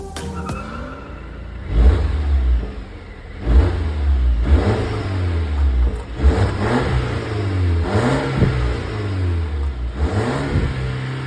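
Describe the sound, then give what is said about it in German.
A Swedish car's engine revs hard again and again, roughly every one to two seconds, each rise stuttering at the top as it hits a soft rev limiter. The sound is loud, with no talking. “Ja, ein bisschen Softlimiter war gerade zu hören.”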